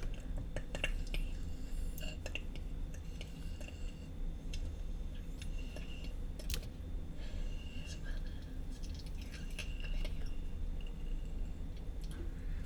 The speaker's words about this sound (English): Uh, it's like two little tits on either side of the microphone, and this chick is rubbing on them and her clicking her mouth and shit like that. Like that's the stuff of nightmares.